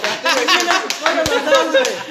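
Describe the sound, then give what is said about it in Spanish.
A few scattered hand claps ring out, irregular and sharp, mixed in with voices and chuckling laughter throughout. “Última vez que les vuelvo a aplaudir”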